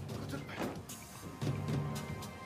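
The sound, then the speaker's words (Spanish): A mechanical door to a bank's ATM room slides and latches shut automatically behind a cashier, with creaking, whirring mechanism noises and a few sharp clicks over a low steady hum, moderately loud. “La puerta se cerró automáticamente detrás del cajero.”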